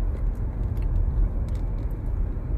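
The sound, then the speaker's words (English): A steady, low rumble of a running car heard from inside the cabin, engine and road noise droning evenly without pause. No one speaks. “You know, doing this the bootleg way, but I like my car cast.”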